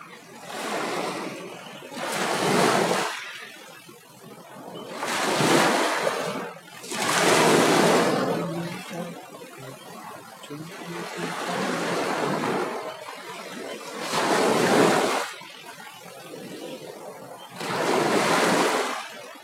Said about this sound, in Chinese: 虽然听久看久之后可能会有点单调，海浪就是这么一波接一波再接一波